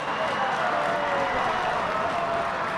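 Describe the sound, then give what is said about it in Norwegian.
A large stadium crowd at the Norway versus Faroe Islands football match applauds Haaland in a steady, dense roar of clapping and murmuring that holds at an even level throughout, with no single voice standing out. “Nå ser vi at stadion her eh, klapper på for Haaland.”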